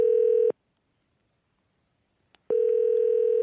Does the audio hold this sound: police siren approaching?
no